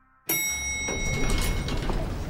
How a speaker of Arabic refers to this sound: تفتح أبواب المصعد ويخرج رئيس قطاع الألعاب في إكس بوكس فيل سبنسر إلى الطابق الخامس في مبنى مايكروسوفت